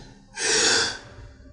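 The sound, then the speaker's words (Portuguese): A person imitates a man's final breath: a single long, slow, soft airy exhale swelling and then fading over about a second, alone with no talking. “Ele apertou a minha mão nessa última respirada Soltou o ar bem devagarzinho e foi soltando a mão e ele descansou.”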